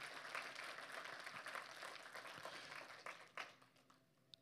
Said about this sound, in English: So I, I, I don't know how to gauge excitement on this thing, but uh, if, if, if you receive what I said today, yeah, just kind of clap. There you go.